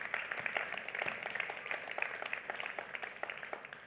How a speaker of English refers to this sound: All the father, raise your hand. Happy Father's Day. Give yourself a, a, a hand clap.